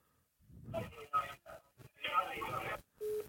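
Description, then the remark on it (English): Muffled, tinny telephone speech cuts off abruptly as the other party hangs up, followed by a steady electronic busy tone beeping at the end of the line as the call disconnects. “Oh, she cut me off.”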